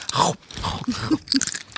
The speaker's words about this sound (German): Alle snacken gerade. Jeder knuspert gerade mit so Mikrofon.